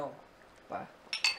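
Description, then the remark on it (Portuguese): Two quick, bright clinks of coffee cups tapping together in a toast near the end, crisp with a short ring, following a few murmured sounds from a voice. “Vamos brindar com café Pega aqui.”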